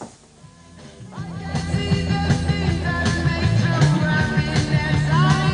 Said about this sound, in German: Und sobald ich die Geräte gepaart habe, äh, ich hatte hier vorher auf Bluetooth geschaltet, dann wird die Eingangsquelle umgeschaltet und er spielt die Musik von meinem Telefon. So, jetzt nochmal hier auf laut gehen.